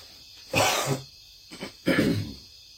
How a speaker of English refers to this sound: Sorry, I had to clear my throat.